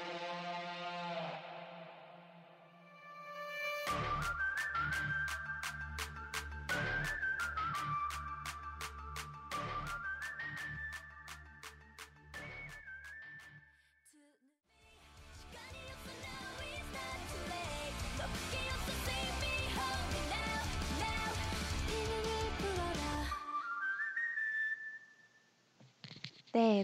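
A bright, airy flute melody opens alone, then carries on over a full K-pop track with steady pounding beats, drops out briefly, and returns over dense, busy music.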